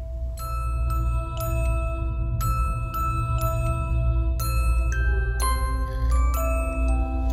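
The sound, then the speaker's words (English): A bright, bell-toned Christmas tune, Jingle Bells, plays on its own, with crisp chiming notes struck in a steady rhythm, each one ringing out over a low, warm backing. “That's fine and cue jingle bells right”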